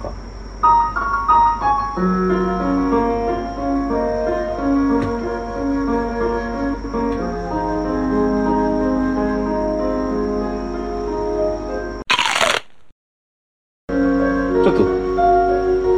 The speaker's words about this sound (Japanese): 尺八を2本入れ。で、こう、高めの、まあ、メインのメロと、それにハモ、ハモらせるというか、コーラスとして入れる2本目みたいな。簡単に合わせました。ピアノと尺八聴いてみましょう